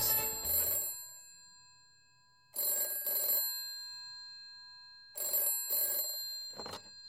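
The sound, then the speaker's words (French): A telephone rings in three bursts of double trills, each separated by a couple of seconds of quiet, the bright metallic bell tones clear with no voices; it is producer René Angélil calling back. “Le producteur finit par s'exécuter et rappelle immédiatement après son écoute.”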